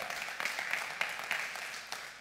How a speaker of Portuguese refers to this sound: Mas pensa que tudo isso é uma oportunidade de você manifestar a sua fé. Você pode dar um aplauso a Jesus por isso. É oportunidade.